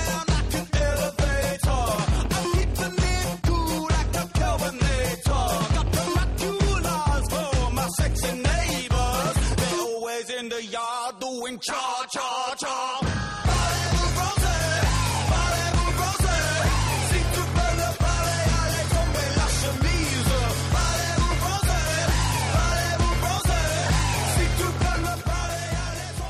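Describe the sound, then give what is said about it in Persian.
An energetic song plays loud and alone as a segment break, driven by a steady pounding beat and heavy bass, with a short breakdown where the low end drops away before the full beat crashes back in. “من بیشتر از این صحبت نمیکنم یا آهنگ گوش بدیم بریم سراغ برنامه این هفته”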